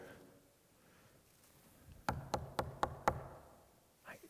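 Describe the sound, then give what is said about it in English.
Five firm knocks on a door in a quick, even rhythm, sounding fairly solid against a quiet, faintly hissing background. “Go see who's at the door.”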